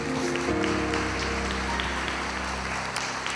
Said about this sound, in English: And how many of you know that God's trustworthy? So, this is what, come on, let's give him a hand clap of praise.